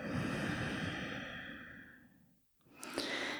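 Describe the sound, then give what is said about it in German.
A long, deep breath in and out during a guided meditation: a broad airy exhale fading over about two seconds, a brief pause, then a soft intake of breath beginning again. “Und dann atmen nochmal tiefer ein und aus.”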